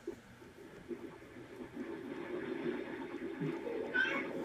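A short cat meow rises briefly near the end, faint, heard over a steady background rumble and low murmuring noise.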